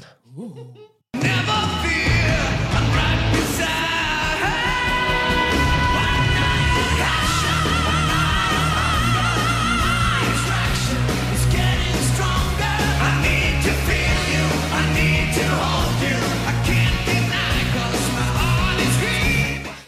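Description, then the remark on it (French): A loud, dense metal track with a singer screaming and wailing over heavy, distorted guitars and pounding drums, starting abruptly after a brief quiet moment and staying intense throughout. “hurleuse de père en fille hein, dans la famille, hein, on l'aura bien compris.”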